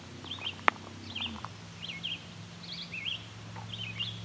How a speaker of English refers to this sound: several gulls going over. It looks to be a mix of ring-billed herring gulls. You might hear them. They call.